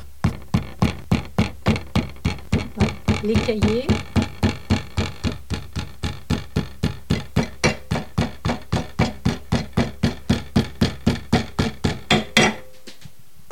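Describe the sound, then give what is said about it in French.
During bookbinding, a hammer taps steadily on the sewn sections of a book held in a vise, folding them over each side of the vise jaws, roughly three firm, sharp knocks per second for about twelve seconds, with a brief spoken phrase over the taps early on. “C'est-à-dire qu'on va rabattre euh, de chaque côté des lèvres de l'étau euh, les cahiers du livre, du livre cousu, à l'aide du marteau.”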